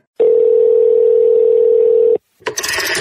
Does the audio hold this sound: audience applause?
no